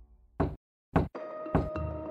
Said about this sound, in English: His mother was in the house, and there was a knock on the door.